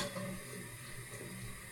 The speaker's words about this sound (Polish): puszczam jajko do wody. Pozwalam się termokurczce przez kilka sekund zacieśniać i wyjmuję gotowe już ubrane jajko.